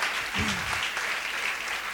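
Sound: audience applause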